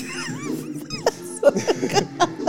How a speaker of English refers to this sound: If y'all hear dogs in the background, It's the puppies. it's the puppies.